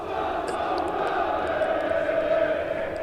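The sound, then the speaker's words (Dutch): A steady roar of a stadium crowd heard through an opened door, a dense, continuous wash of voices with no individual words standing out, from fewer than a thousand people in an otherwise empty stadium. “Zie dat de mensen dan een beetje van eh, het geluid mee horen van het publiek.”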